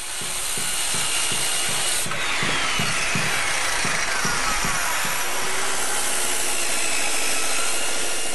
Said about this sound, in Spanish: recuerda muy bien ese ruido de martillos, picos y taladros en sus últimos días viviendo en el edificio del que fue inquilino por 10 años, el Trevi.